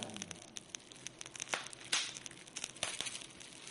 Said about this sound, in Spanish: se prende una antorcha, literal, en el patio de material de aquella casa de tres pisos, un palo de madera con una llama flamea desde el fondo y cuando queda algún bache de silencio se oye el crepitar del fuego como una revelación subterránea.